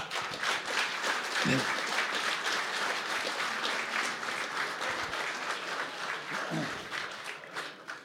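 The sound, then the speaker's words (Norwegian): A crowd applauds steadily for about eight seconds, a dense, even wash of many hands clapping at once, holding strong throughout before starting to thin near the end. “og kirke jeg syns vi kan gi en applaus.”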